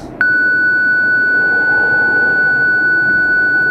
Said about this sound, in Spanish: Parece ser un aviso de auxilio. Aitarek, ah, ¿sabes de dónde proviene esta señal tan aguda?